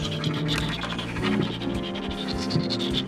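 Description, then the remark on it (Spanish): Rats running up and down inside wood-panelled walls: a steady, busy scratching and scrabbling that runs continuously, moderately loud, with no voices. “Las paredes recubiertas de madera estaban llenas de ratas que correteaban de arriba abajo”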